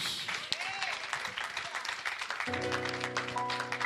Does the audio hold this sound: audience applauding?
yes